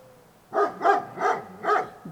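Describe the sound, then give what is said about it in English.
A dog barks repeatedly in a steady rhythm, about five sharp barks in quick succession, clear with no other sounds around them, in a field at the back of a house. “Shiro was heard barking for a long time in the field at the back of his master's house”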